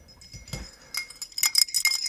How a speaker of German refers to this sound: Ich habe was auf Eis, hört ihr? Hört ihr? Ja, ich höre es.